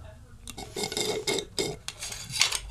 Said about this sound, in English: Food, yes. Enough with the uh, eating sound effects.